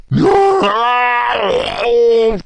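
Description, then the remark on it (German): A voice imitates a dragon's scream: one long, strained, groaning wail lasting over two seconds, loud and rough, bending in pitch before cutting off abruptly. “Der Drache schreit”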